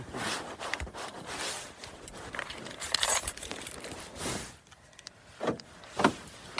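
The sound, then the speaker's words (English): Rustling and metallic jingling of keys, followed by the clunk and click of a car door being unlocked and handled, with a few sharp mechanical clicks near the end, outdoors on a cold April day in Massachusetts. “Oh, I have to unlock the door.”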